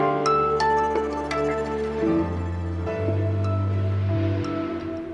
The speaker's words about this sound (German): Ja, was Sie jetzt hören, ist die Toilettenspülung, die blöderweise direkt neben meiner Sprecherkabine liegt.